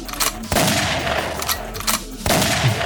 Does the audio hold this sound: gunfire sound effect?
yes